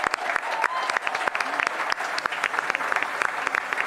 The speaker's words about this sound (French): Merci Usul, applaudissements pour Usul pour cette carte blanche.